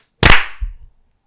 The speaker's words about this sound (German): Klatschen in 3, 2, 1.